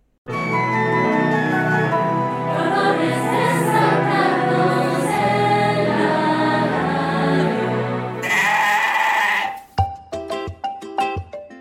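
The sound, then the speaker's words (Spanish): Loud sheep bleating on a farm in Wales as a drone herds the animals and a ewe protects her lambs: long wavering cries overlapping almost continuously for several seconds, then a brief burst of noise and a few shorter, choppy bleats. “En las redes sociales se hizo popular un video que muestra cómo una oveja protegió a sus crías mientras eran grabadas por un dron en una granja de Gales.”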